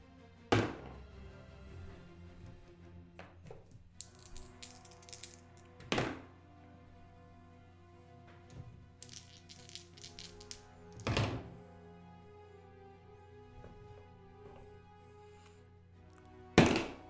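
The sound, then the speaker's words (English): Dice clatter on a table during a turn-based tabletop game, in a few loud rolls, each landing with a sharp thunk, between stretches of light rattling, over a steady low hum with no talking. “Dude, why are you rolling so many dice?”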